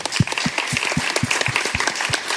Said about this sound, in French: on peut applaudir encore